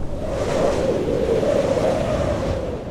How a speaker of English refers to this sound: But the silence isn't the end of the storm. In fact, it's just getting started. Huh? Winds pick up. And I mean, really pick up. I mean, really, really, really pick up.